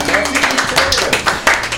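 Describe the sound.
Studio clapping from a small group at the end of a show segment, a dense patter of hand claps running steadily throughout with bright, crisp transients, mixed with overlapping voices talking underneath.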